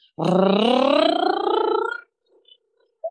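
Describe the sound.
A person vocally imitates a high-speed camera's motorboat-like whir: one buzzy, rumbling drone lasting about two seconds, rising steadily in pitch before cutting off, followed by near silence.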